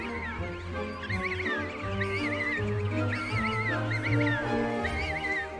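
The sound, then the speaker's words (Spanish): A young animal, Rocky, cries repeatedly for its parents in high, wavering calls, fairly loud, rising above a dense chorus of other animal calls and a steady low rumble. “Y finalmente, los padres de Rocky también oyen el inconfundible llanto de su pequeño.”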